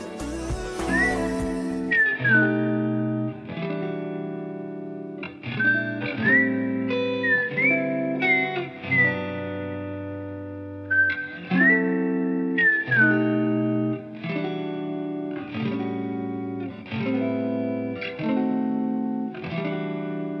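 A melodic whistled tune floats over a steady, rhythmic guitar accompaniment with chords struck in regular pulses; a song intro with no voices, clear throughout.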